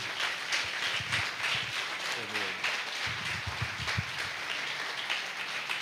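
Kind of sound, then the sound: crowd, audience applauding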